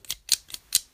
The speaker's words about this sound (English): that is the sound of my cutter being prepared and ready.